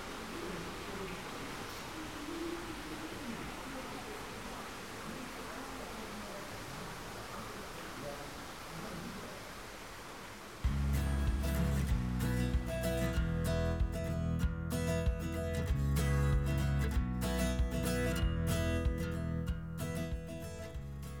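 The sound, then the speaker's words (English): A steady rush of an indoor waterfall fills a greenhouse at Kew Gardens while visitors' voices murmur beneath it; about halfway through, loud music abruptly takes over. “In the background, you can hear, beside the voices of the visitors, of course, the waterfall here.”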